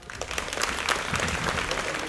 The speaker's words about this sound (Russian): Такие не самые веселые аплодисменты. Типа, да-да, это мы.